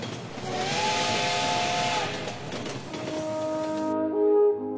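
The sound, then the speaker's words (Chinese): A little train's steam whistle sounds in sustained tones over a loud rush of hissing steam. The hiss cuts off near the end, leaving the whistle tones ringing alone, with no talking. “从前，一个小镇上有一列小火车。”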